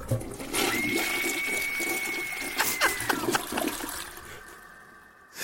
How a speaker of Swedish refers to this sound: In på toaletten, öppnar upp toalettlocket och spolar ner